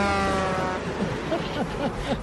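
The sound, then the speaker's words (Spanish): A car horn blares in one long, steady honk that fades after about a second, followed by chattering voices and general noise. “Póngame otra vez el pito porque no puedo la”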